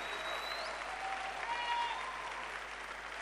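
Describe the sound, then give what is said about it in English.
An audience claps their hands in a dense, steady wash of applause that fills the whole clip at an even, moderately loud level, with no single voice standing out. “All those who are not clapping are unbelievers.”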